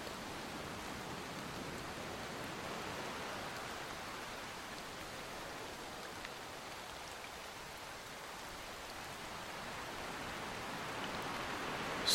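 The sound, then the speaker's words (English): Heavy storm rain on a North Sea shore pours down in a dense, unbroken hiss, steady and loud from start to finish, with no voices and no pauses in the downpour. “He could hear the roar of the storm battering the shore below him.”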